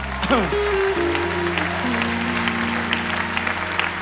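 An audience applauds a preacher for his sermon, steadily, a dense wash of many hands clapping at an even loudness throughout, with a few sustained low tones humming underneath.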